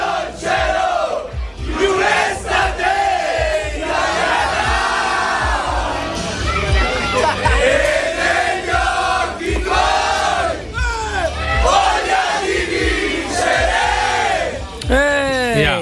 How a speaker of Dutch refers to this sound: je hoort eh, wat lijkt op dronken voetbalsupporters na de wedstrijd. Niets is minder waar. Je hoort hier gewoon het nationale team van Italië. De voetballers, de trainers, iedereen.